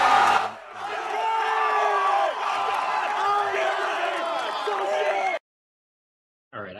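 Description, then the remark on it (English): A crowd cheers and yells loudly, many overlapping voices shouting together in a sustained roar for about five seconds, reacting to a player winning a game by one second, before it cuts off abruptly to silence. “Did you feel as incredible as the crowd did?”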